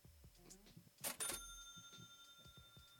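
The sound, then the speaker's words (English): A single bright cash-register ka-ching of a Cash App payment notification rings out, a sharp metallic burst whose chime tones linger and fade over the next couple of seconds, with faint murmuring in the background. “Yes, Kaching. Yeah. Yeah, I need you. Cash App.”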